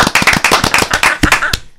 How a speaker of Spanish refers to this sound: Sí, señor, un aplauso